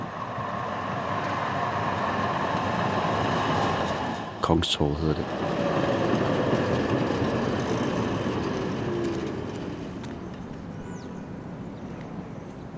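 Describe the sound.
A tram rolls steadily through Gothenburg (Göteborg) toward a square, with a continuous low rumble, a brief clattering jolt partway through and a faint rising motor whine, while a voice speaks briefly over the ride.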